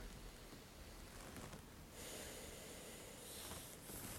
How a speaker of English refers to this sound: I'm just taking a listen, so just relax for me. And take a deep breath for me, please.